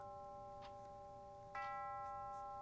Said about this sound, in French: L'horloge de la cuisine sonne quatre heures.